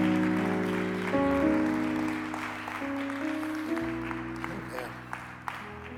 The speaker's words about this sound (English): let's give God another hand clap of praise. Amen.